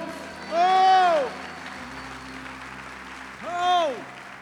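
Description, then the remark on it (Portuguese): An audience at a worship service claps steadily throughout while two loud, drawn-out shouts to the Lord rise and fall over the applause, one near the start and another toward the end. “Dê um brado ao Senhor e aplaudo neste lugar e adoro.”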